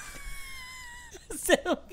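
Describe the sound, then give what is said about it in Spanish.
A voice lets out a thin, sustained high-pitched cry, imitating a desperate scream, then breaks into a few louder, choppy vocal bursts near the end. “Marica, yo, yo grité así. ¡Ah!”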